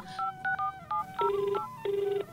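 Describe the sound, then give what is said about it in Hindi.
A phone number being punched in: a quick run of about five electronic keypad beeps, then two longer, steady tones. Clear, with no voices. “मैं अभी फोन करता हूँ हाँ जल्दी फोन करो”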